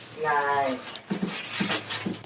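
A dog gives a drawn-out, high whimper, followed by several short, sharp bark-like yelps.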